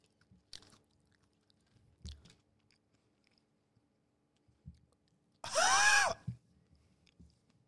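Wet chewing with a few scattered crunchy bites, then a louder, harsher burst of grinding near the end before the chewing tapers off. No one talks.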